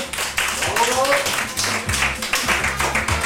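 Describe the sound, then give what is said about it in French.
A short burst of applause for a colleague at the end of their chronicle segment, dense and steady throughout, with people's voices and some laughter audible underneath. “Bah on peut l'applaudir quand même, le salut, bravo”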